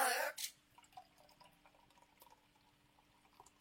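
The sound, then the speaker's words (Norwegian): A little more mixer is poured into a glass, opening with a loud splashing gush that quickly fades into soft trickles and faint drips. No one speaks. “sitter og sniker eh, litt mer eh, blandevann eh, oppi eh, glasset sitt”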